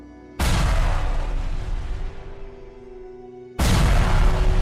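Two heavy explosion booms, each striking suddenly with a broad rumbling blast that slowly decays; the second hits about three seconds after the first. Loud, with no voices.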